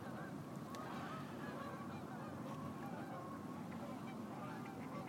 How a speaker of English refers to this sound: Can you hear the geese? Across the lake.